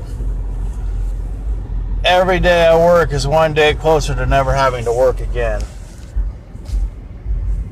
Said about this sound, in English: And I'm in my truck. This is the last stoplight till I have a nice little 10 minute drive from CP to Gold Hill. I thought I'd try this. The AC is going, so it may not be the, um, even playable.